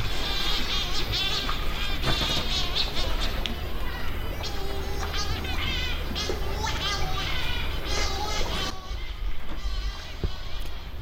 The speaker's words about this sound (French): Il est 21h à saint Georges. On est arrivé hier. Et comme tous les soirs depuis hier, ça fait que 24 heures qu'on est là, il y a des oiseaux ici qui font rikikiki, rikikiki.